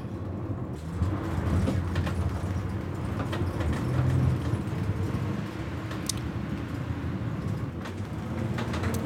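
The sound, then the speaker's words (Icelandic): An ambulance drives through heavy traffic, driving up onto traffic islands and edging past cars that are slow to give way, its engine a steady low rumble with road noise and occasional knocks and clatters, continuous and fairly loud throughout with no voices. “Og þeir higg ekkert við að keira upp á umfyrirregjur og svona mjaka sér framhjá ef að bílarnir eru sljóir að vika.”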